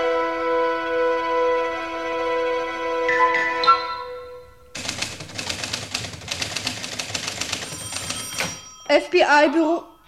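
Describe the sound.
A telephone bell rings in one long, loud, rattling burst of about four seconds, following a sustained musical tone, and then a voice starts to speak.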